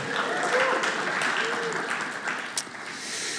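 A crowd applauds in a steady, dense wash of many hands clapping at once, sustained and fairly loud throughout, with faint voices murmuring underneath.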